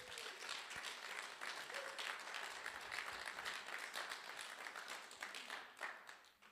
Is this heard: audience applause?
yes